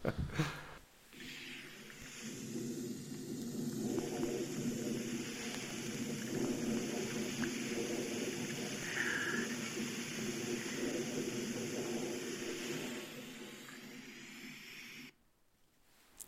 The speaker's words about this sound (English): It's faint, uh, but it's in the middle of a, a, jet clip. You'll hear a high altitude jet overhead, but there's also a whisper in here, and uh, we don't know what this is.